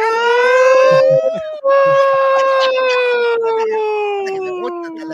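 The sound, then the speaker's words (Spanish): A loud alarm siren, played as a subscription alarm for a new subscriber and called the Cobreloa siren, wails in two long sustained tones separated by a brief break, its pitch sliding slowly downward with a howling quality. “La gente lo que quiere es escuchar la sirena de Cobreloa.”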